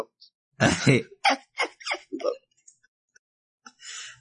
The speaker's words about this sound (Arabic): الكلب عارفه فرحانه هو هو هو